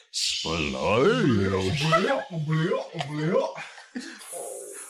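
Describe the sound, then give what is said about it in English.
Several voices together make gurgling, retching vocal noises imitating regurgitating water, with wavering pitched sweeps and throaty bursts over about five seconds, loud, ending in a hissy breath. “With that sound, uh, you regurgitate water onto the building, steam rising up into the night”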